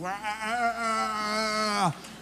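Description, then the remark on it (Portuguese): A voice imitates a snoring sound: one steady, buzzy, droning tone held for about two seconds, then quickly sliding down in pitch and cutting off. “Chamam isso de ronco, né?”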